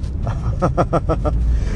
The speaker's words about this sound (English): Is that a powerful four cylinder in the hood with a supercharger? Yeah, man.